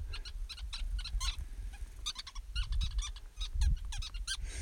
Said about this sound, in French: Ce sont, en anglais, on appelle ça des weaver birds. Ce sont des, des petits oiseaux, grands un peu comme nos moineaux, qu'on ne voit plus très souvent chez nous, malheureusement, et qui construisent, mes des nids géants sur des acacias.